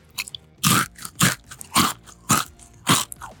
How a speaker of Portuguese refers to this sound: É isso, então eu vou acabar esse programa aqui, dando mais uma mordida ao vivo no chocolate para vocês que são fãs de SMR. Vou comer pertinho do microfone aqui, ó.